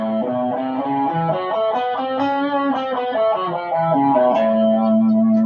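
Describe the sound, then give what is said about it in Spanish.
A major pentatonic scale with an added minor third as its blue note, forming the major blues or country scale, played as single notes on an effected, slightly overdriven electric guitar, stepping up and back down at a steady pace before landing on a long sustained note. “Entonces, si tomamos la escala penta mayor y le añadimos la tercera menor, que sería su blue note, ahora van a escuchar la sonoridad, nos quedaría esto.”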